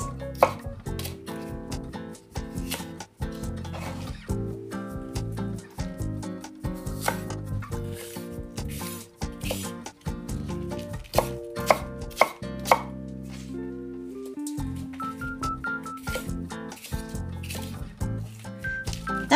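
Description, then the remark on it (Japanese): A knife chops steadily through napa cabbage on a cutting board, the white parts sliced at an angle and the green leafy parts roughly chopped, a rapid series of crisp thuds repeating in uneven bursts with no talking, just the knife and faint clatter. “緑色の葉っぱのところはざく切りにこういう感じで切ります白いところは1枚ずつですね白いところはそぎ切りにしてそして葉っぱのところはざく切りにします。”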